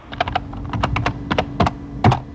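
Computer keyboard typing up close, a quick irregular run of crisp clicking keystrokes in small bursts, with a faint low hum underneath and no voices.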